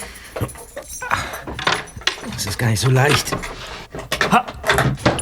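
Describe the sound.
Keys jangle and scrape in a lock as someone works to open a desk drawer, with several metallic clicks and rattles while a person speaks over the fumbling.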